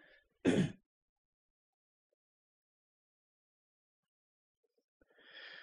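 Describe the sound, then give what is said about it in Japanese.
A single short, forceful throat clearing, followed by a long stretch of silence and then a soft breath near the end. “ちょっと咳払いします。”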